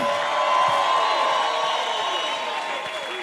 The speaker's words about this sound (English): Can I hear an amen? Give the Lord a big hand of praise, somebody.